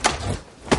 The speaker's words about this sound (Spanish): Se abre la puerta.